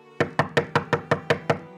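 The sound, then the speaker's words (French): Eight quick, evenly spaced knocks on the door of a house in a steady rapid rhythm, each a sharp hollow thud with a short ring, heard alone with no voices. “Une heure s'écoula lorsqu'on frappa à la porte.”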